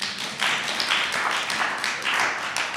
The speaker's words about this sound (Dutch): Geef hem trouwens een applaus.